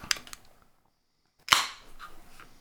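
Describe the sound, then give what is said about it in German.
A few small metallic clicks, a short pause, then a sharp pop as a beer bottle is opened for a beer tasting, followed by a bright hiss that fades into soft fizzing. No one speaks. “So, jetzt können wir mhm. wieder mal einen schönen Zisch machen.”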